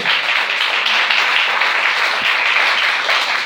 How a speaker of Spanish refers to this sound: Denle el aplauso al Señor esta noche.